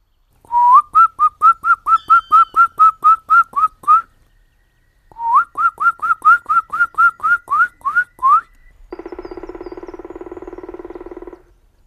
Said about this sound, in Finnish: Metsiemme suurin tikka palokärki ylittää kuikuttaen aukeaa.